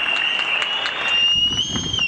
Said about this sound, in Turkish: Sağlık çalışanları her akşam alkışlanmaya devam ediyor.